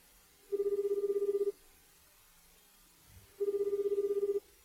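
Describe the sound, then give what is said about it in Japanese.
Two bursts of a telephone ringback tone, each about a second long with a steady mid-pitched buzz, separated by a pause of nearly two seconds, as a man calls a printer repair center. No talking. “男の人がプリンターの修理センターに電話しています。”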